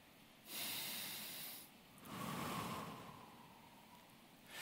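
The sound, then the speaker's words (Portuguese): Two slow, airy breaths, a long inhale followed by a longer exhale, soft and hissing against a quiet background with no talking. “Dizem os rabinos, e é muito linda essa tradição, que o som mais parecido com aquele com o qual Deus responde o seu nome a Moisés é exatamente o som da nossa respiração.”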